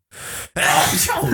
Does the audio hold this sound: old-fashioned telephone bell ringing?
no